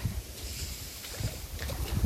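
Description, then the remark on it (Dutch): Someone in rubber boots wading far out into water, with a few heavy sloshing splashes at an uneven pace, over steady outdoor wind rumble and no talking. “ik heb maar blij dat ik mijn laarzen aan, heb. Want ik loop hier echt eh, heel ver in het water.”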